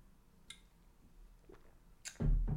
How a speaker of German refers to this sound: Ich brauche wieder einen Schluck Wasser.